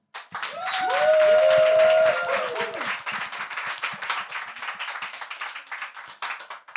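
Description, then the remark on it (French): An audience breaks into steady, dense applause, loudest in the first few seconds with a brief sustained cheer over it, then continuing as a fainter, even patter of clapping. “je vous demande d'applaudir Marine.”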